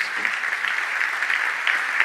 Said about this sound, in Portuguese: Irmão, vamos aplaudir o Senhor pela vida dela?